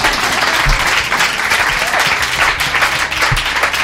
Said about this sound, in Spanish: podéis aplaudir, podéis aplaudir.